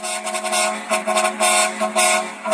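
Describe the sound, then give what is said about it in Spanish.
A microbus driver honks the horn to announce arriving at the stop, a quick, uneven series of loud, brassy blasts over a steady droning tone. No one speaks. “Bueno, pues ni estos claxons va a querer Martí Batres.”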